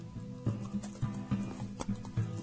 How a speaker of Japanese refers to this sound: これは硬いわ。これ番組史上一番こう、咀嚼音出てんじゃないうん。うん、すげえ、ニンニク。